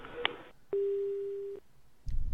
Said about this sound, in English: To leave a message for Congressman Schiff, please record your name, zip code, and a message at the tone.